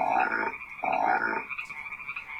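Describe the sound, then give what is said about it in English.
Frogs croak loudly in ditches in two long, rasping bursts, with a steady high-pitched chorus of other frogs trilling underneath throughout. No one speaks. “that is the f- sound you hear when frogs sing loudly in the ditches.”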